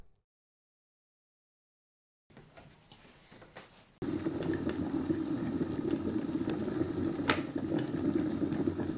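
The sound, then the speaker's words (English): After a couple of seconds of silence and a soft hiss, an electric kettle comes to a loud, steady rolling boil, a dense rumbling roar with one brief sharp crackle partway through. “I'll move my playhead to the point just before the kettle clicks off.”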